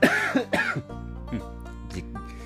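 Two loud coughs in quick succession, followed by a quieter stretch with faint throat sounds over a steady low hum. No one speaks.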